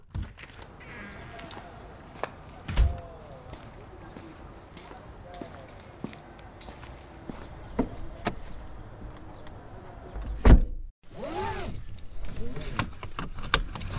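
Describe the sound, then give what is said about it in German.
Someone climbs into a car: scattered clicks and rustling, a solid door thump about two-thirds through, then a steady mechanical whir like a power window moving. “Soll ich kurz ins Auto?”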